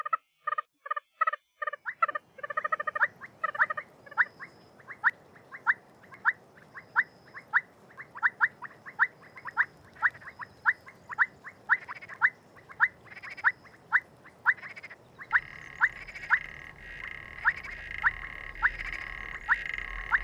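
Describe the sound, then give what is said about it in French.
Oriental fire-bellied toad (Bombina orientalis) calls: short, ringing notes repeated in a steady rhythm, clear, with background noise rising toward the end. No voices. “Bombina orientalis, qui est une grenouille euh, rigolote.”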